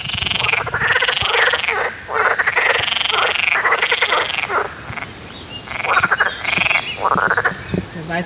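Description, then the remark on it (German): A chorus of frogs at a lake croaks loudly and continuously, rapid rattling calls overlapping in repeated bursts, with slightly different voices answering one another and no talking. “So, tschüss, ihr lieben Frösche.”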